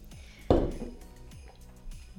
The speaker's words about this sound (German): Und bevor wir euch vorstellen, stoßen wir wieder mit ihm, mit ihm an. Ich verrate schon gleich was. Zum Wohl. Zum Wohl.